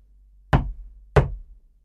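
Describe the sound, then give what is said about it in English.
Two firm knocks on the wooden door of a country house, evenly spaced about half a second apart, each with a short hollow decay, as Oliver knocks on a rainy morning, with no voices. “He knocked at the door”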